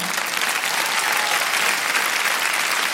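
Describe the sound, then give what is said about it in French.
An audience claps steadily for a few seconds, a dense, even patter of many hands at a fairly loud, constant level with no voices over it. “Alors oui, ça, ça vaut un petit applaudissement.”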